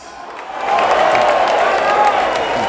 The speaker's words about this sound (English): A bit of crowd noise. I tried to do the. Were they? Uh, I think they were cheering at your joke, not at the cricket.